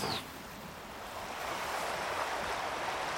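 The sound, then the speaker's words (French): Sea waves surge and swell, a broad rushing wash of water that grows steadily louder over a few seconds, with a brief bright hiss at the very start and no voices. “L'eau rentre en ébullition entre les deux bateaux. La mer commence à faire des vagues alors qu'elle était calme.”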